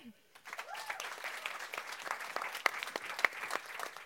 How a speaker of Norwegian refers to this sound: Tusen takk for at dere kom her i kveld, og til paneldeltakerne og ordstyrer. Applaus til de.